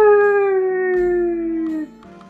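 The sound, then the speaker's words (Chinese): A voice imitates a coyote howl: one long, sustained tonal wail that starts strong and slowly slides downward in pitch before breaking off abruptly, with no talk over it. “其中一位信差来到了土狼亨利的家。”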